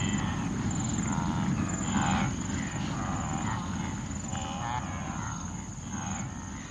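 A wildebeest herd stampedes in flight as hyenas run into it and it breaks apart in all directions, a steady low rumble of many pounding hooves with no clear individual beats, broken by scattered animal calls above the dense drumming.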